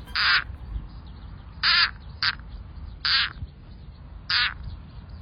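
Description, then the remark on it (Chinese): A frog's distress call when attacked by predators such as snakes or birds: five loud, harsh, whining cries, each about half a second long, spaced irregularly over a quiet background with no talking. “但是，当他们真的遇到天敌，像是蛇啦、鸟啊，来攻击青蛙的时候，他们就会叫出这种声音。”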